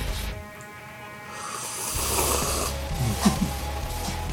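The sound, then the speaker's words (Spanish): A long, loud, airy slurp of hot tea with lemon, rising into a noisy gurgling sip over several seconds with no talking. “Vamos a hacer un himno de los sorbedores del, sorbido oficial del pot”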